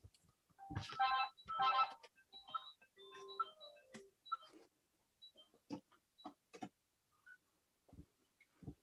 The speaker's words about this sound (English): Sorry, that's the phone going. Typical.